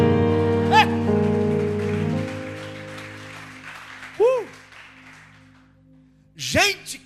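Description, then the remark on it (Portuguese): An audience claps for Jesus in a dense, steady patter that gradually fades out, mixed with sustained musical tones and a few loud rising-and-falling vocal shouts. “Quem pega essa palavra, diga um amém bem forte, aplauda Jesus.”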